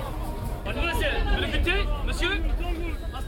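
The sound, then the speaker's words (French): Busy outdoor market crowd chatter at the Abattoirs market in Brussels on a Sunday: overlapping voices and a dense, steady murmur of many people talking at once, with scattered speech rising above the general hubbub. “Aujourd'hui, on est dimanche, je suis au marché des abattoirs”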